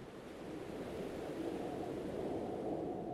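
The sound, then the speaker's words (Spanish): Ocean waves wash in a steady, continuous roar of surf, broad and rushing with no breaks, fairly loud, with a faint windy hiss on top and no voices. “Era el sonido de las olas del mar.”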